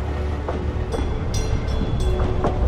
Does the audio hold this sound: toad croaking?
no